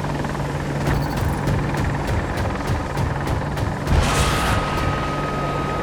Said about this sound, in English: Chopper's on the ground, chopper's on the ground, fire.